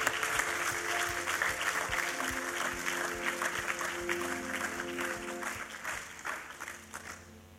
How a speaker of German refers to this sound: Ich würde gerne Applaus machen zur Ehre von Jesus. Ist okay?